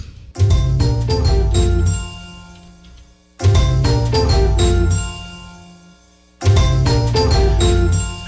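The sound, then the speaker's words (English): A short, bright TV commercial jingle for Goldfish snack crackers, "the snack that smiles back", played three times in a row. Each loud burst starts abruptly and fades before the next, with no voices. “It was a commercial for goldfish.”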